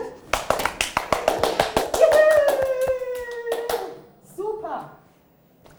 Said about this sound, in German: Jetzt brauchen wir Applaus, bitte.